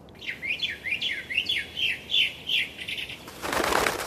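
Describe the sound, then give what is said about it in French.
A bird chirps in a forest in a quick, steady series of bright, repeated notes, clear over a quiet background, ending with a short burst of broad rustling hiss. “Sur la double page 66-67, vous nous faites entendre un oiseau.”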